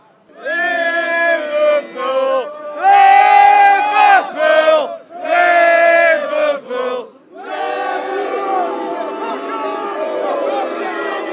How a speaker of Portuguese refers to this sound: o ônibus do Barcelona chegando e sendo muito vaiado pelos torcedores do Liverpool.